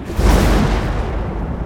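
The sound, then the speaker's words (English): A loud, booming clap of thunder with a heavy low-end rumble, bursting in sharply and then rolling on steadily without fading much. No voices are heard. “there was a clap of thunder loud enough to mute the world.”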